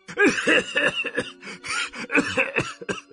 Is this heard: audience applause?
no